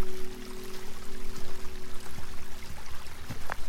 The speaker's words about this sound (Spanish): Miré los riachuelos de agua que bajan de las montañas formando pequeños arroyos donde las aguas saltan, corren, formando pequeñas cascadas. ¿Escuchás el sonido del agua? Concéntrate en él.